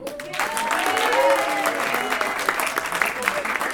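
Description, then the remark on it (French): A large audience claps and cheers loudly and steadily for all the students and teachers, with whoops and shouts rising above dense, continuous applause that fills the whole stretch. “Ok, faites du bruit s'il vous plaît pour tous les élèves et les profs s'il vous plaît.”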